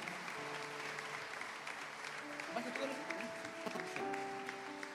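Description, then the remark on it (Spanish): An audience gives steady, dense applause of praise to the Lord that fills the full five seconds, with sustained organ or keyboard tones and faint voices mixed in beneath the clapping. “Fuertes aplausos.”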